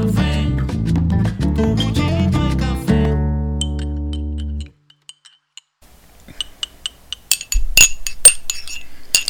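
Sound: coffee cup clinking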